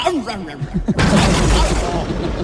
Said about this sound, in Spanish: ¿Quién eres con tantos petardos? Esto parece la falla de Valencia.